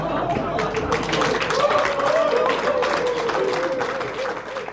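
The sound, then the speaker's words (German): Steady, dense applause from an audience at a candidates' debate election forum in Mainz, a continuous wash of many hands clapping that holds at a fairly even loudness, with voices murmuring faintly underneath. “Auch an vielen anderen Stellen des Kandidatenduells fällt der Beifall für Nino Hase etwas lauter aus als der für seinen Kontrahenten von den Grünen.”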